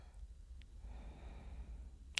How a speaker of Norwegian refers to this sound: Så nå kan du bare puste rolig inn gjennom nesen